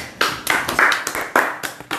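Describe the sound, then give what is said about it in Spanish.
A short burst of applause: a handful of sharp, fairly loud claps in a quick, slightly uneven rhythm, with no voices over them. “Un aplauso.”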